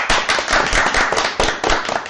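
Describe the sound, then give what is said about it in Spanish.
A burst of applause from a crowd, with many hands clapping in a dense, crackling patter that stays loud and steady for about two seconds. No one speaks. “Yo vuelvo a pedir esta semana otro gran aplauso porque Naruto, de nuevo, otra vez, no ha terminado.”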